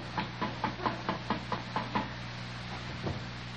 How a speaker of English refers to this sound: Oh wait. You know, you don't knock on barracks doors. This is something I hadn't done for years. You know, I'm knocking on a door, see.